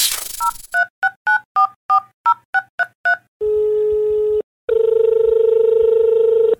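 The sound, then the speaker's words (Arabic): A quick run of about ten telephone keypad tones, each a short two-pitch beep in steady rhythm, as a call is placed to a guest, followed by two long, loud, low ringback buzzes separated by a brief pause. No one speaks. “دعونا نتصل بضيفنا”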